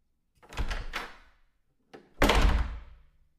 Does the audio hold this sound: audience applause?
no